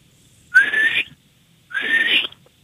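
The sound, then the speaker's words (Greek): Two breathy whistle attempts, each about half a second long with a short pause between, carrying a faint rising tone buried in a lot of airy hiss; no one talks. “Λοιπόν, δεν ξέρεις σκύλο έχεις μια ζωή και δεν ξέρεις σφυράς”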